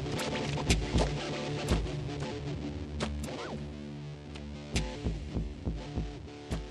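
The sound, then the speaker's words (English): A distorted Eurorack synthesizer patch using the Noise Engineering Kith Ruina churns with a gritty, dirty low end, sustained buzzing tones broken by repeated thumping, throbbing pulses, loud with no voices. “It's that that low end, that or not that low end, but that that dirt that you hear in there.”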